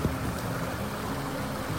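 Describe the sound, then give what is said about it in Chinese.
The Madala Creek (马达拉溪) at the foot of a mountain flows in a steady, even rush of water over rocks reddened by red earth. The level holds the same throughout, with a faint low hum underneath and no voices. “这个真山山脚下的马达拉溪，”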